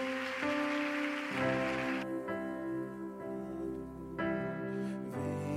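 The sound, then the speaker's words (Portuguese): A church audience claps for God after a prayer in a steady, crackling wash over sustained keyboard chords; the applause fades midway, then swells again briefly before settling under the music. “Aplauda Ele.”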